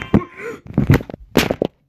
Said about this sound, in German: Oh mein Gott. Ups. Mein Handy ist gerade runtergefallen.